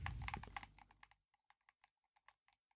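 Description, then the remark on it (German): Quick plastic clicks of a game controller's D-pad, a fast flurry at first, then slowing to sparse, evenly spaced taps. Dry and fairly quiet, with no voices. “ich könnte jetzt übrigens nebenbei Xbox spielen, du würdest es nicht hören, weil die, die, Lüfter ja nicht zu hören sind, außer durch ja. das D-Pad so.”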